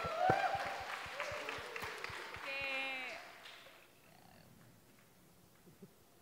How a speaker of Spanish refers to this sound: Un aplauso para Mariana, por favor